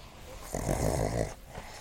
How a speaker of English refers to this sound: the pugs are play bowing each other sniffing each other's butts, making noise is normal. As you say, it's the soundtrack of our life, and I'm grateful for it.